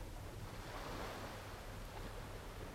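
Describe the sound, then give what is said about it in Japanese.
Steady ocean surf washes continuously onto a shore, a broad hissing roar with a gentle swell in the middle, wind adding a faint rumble. No voices. “この海辺にいるのはあなたと私だけではありません”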